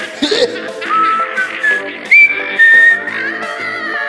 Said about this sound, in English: You have to whistle, …! You have to whistle!